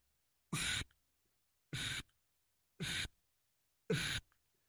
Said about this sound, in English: Okay, so I'm going to play it through the call backwards, and you'll be able to hear the way the air is actually coming through the call.